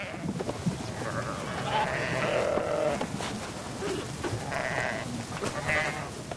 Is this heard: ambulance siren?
no